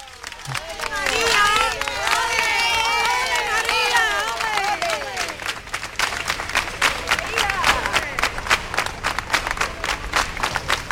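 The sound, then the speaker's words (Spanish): A crowd in the Plaza del Altozano in Triana, Seville, claps in a steady rhythm (palmas al compás) as the Jesús procession arrives, sharp even beats gaining prominence in the second half, after an opening of loud mingled voices with wavering sung or shouted tones. “Palmas al compás.”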